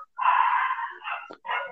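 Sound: small dog barking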